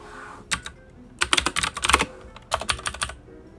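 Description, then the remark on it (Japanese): Rapid, clattering keystrokes on a computer keyboard heard during a radio programme, coming in quick bursts with brief pauses between them, fairly crisp, with no voices. “最近はこのキーボードの音がないから寂しいよ、みたいなね、そんなお話も聞きますが”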